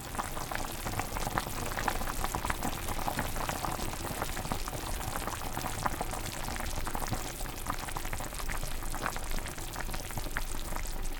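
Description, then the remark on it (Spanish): Bone and vegetable broth boils steadily in a pot for 45 minutes, a dense, continuous bubbling and popping that stays even for the whole stretch, with no voices. “Este sonido es el indicativo perfecto de que están pasando cosas alucinantes dentro de esa olla.”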